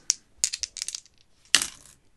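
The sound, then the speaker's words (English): Dice clatter and tumble across a hard surface in a quick burst of sharp clicks, pause briefly, then land with one more bright rattle that fades out. No one speaks. The dice are rolled on a RuneQuest table. “I'm going to roll on my favourite uh, RuneQuest table and award them with a chaotic feature.”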